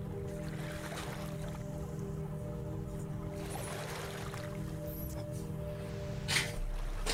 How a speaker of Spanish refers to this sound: El agua que llega hasta la orilla.